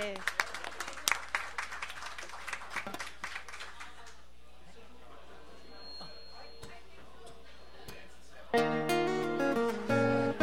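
Loud, dense audience applause welcoming the first official performance of an artistic spokesperson fills the first few seconds, then thins out and fades into quiet background noise before music begins near the end.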